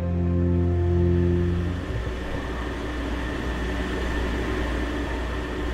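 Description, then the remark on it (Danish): A steady, loud engine drone with a deep humming tone, giving way after a couple of seconds to a broad rushing rumble of wind and churning water on the deck of the ferry Prinsesse Isabella during the trip to Samsø. No one speaks. “Jeg står på dækket af færgen Prinsesse Isabella, og det er et sted, jeg har stået mange gange før.”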